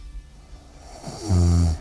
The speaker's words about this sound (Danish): Og ja, så slutter sangen med, at der er en, der snorker.